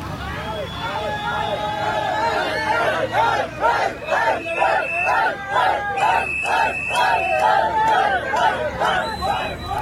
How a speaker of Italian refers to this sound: è il video dei festeggiamenti degli abitanti di Ahmadab a Khartoum quando sono stati liberati dalle RSF.